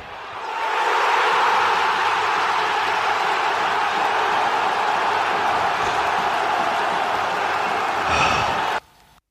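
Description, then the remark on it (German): A cheering sound effect: a dense, steady roar of crowd cheering and applause that swells in quickly, holds at an even loud level for about eight seconds, then cuts off abruptly. “hier die Nominierung und hier auch äh, dein Hörer der Woche, Jubel.”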